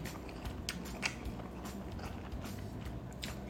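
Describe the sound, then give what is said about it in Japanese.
Someone chewing 7-Eleven squid and shrimp fried rice noodles (yaki bifun), with soft wet munching and small crackly bites repeating steadily, a few sharper crunchy clicks standing out; no talking. “今日はアジアンなテイストでもう一つ買ったのがこのシーフードねエビと以下が上手に2個ずつしっかりねカウントして載せてる感じの焼きビーフンですよいただきます”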